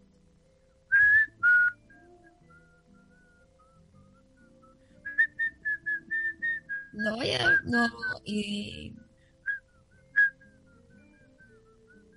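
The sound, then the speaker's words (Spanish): A person whistles a short tune in clear, high notes, first a couple of brief tones, then a quick run of melody, with a little talking and laughter breaking in partway through. “Sí, que, pero imagínate, estamos en un ascensor y uno está ahí piola y tú que sabes silbar, ponte a silbar.”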